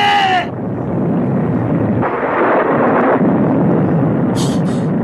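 A loud, steady roar of storm noise with a heavier rumbling swell of thunder in the middle, a brief high cry at the start and short sharp bursts near the end.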